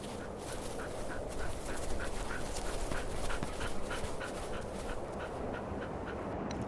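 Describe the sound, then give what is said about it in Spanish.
A dog running at full speed through the snowy landscape outside a United States research base in Antarctica pants quickly and steadily, with short breathy huffs repeating throughout over a constant background rumble; no clear barks stand out. “Afuera del lugar, un grupo de científicos observan a un perro muy bonito que corre a toda velocidad en el paisaje blanco.”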